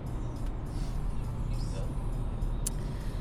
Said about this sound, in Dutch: We zitten in de auto, zijn onderweg.